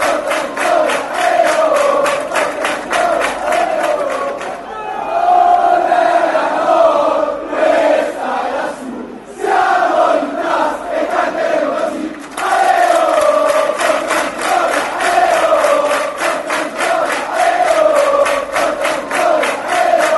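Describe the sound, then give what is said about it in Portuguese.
A large crowd of football ultras chants a rhythmic stadium song in unison, loud and sustained, with a brief lull midway before the massed voices surge back in full force. “a gente vai ouvir então Questa e é la Sud”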